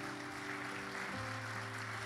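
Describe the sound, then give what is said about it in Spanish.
An audience at Tabernáculo de Gracia applauds steadily throughout to welcome a new member into the family of Christ, a dense wash of clapping with sustained organ-like chords droning underneath that shift pitch midway. “Por favor, denle un aplauso.”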